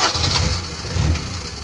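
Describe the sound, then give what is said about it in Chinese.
A car engine cranks and catches, settling into a steady low rumble with a fluctuating mid-range whir, loud and continuous throughout with no voices. “汽车一响，咱们黄金万两是吧？”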